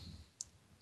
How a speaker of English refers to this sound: yes, that was my phone, but we'll have William edit that out like the rest of the show